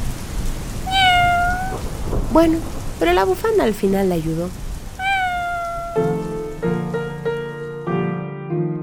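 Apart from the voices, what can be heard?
cat meowing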